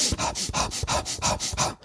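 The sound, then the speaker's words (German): Quick, rhythmic breathing in through the nose and out through the mouth, about eight short puffs in under two seconds, loud and steady with no talking. “Und wenn man schneller atmet, durch den Mund ein, durch, äh, durch die Nase ein, durch den Mund aus, also”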